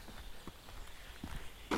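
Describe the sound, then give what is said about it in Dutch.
Footsteps of people walking outdoors in nature, a steady series of soft crunching steps on the ground, quiet, with a faint background hush and no talking. “Nou, we lopen, wat is het? Twee minuten.”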